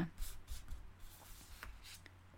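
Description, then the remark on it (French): Soft, papery rustles of a deck of cards being shuffled, several quick riffling bursts spread over a couple of seconds, quiet, with a faint low hum underneath. “Je vous le fais en live, n'est-ce pas Je bats les cartes en même temps.”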